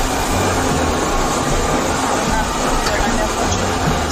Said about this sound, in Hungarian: Itt a vonat.